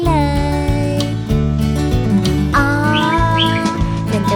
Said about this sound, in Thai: นกกังเขน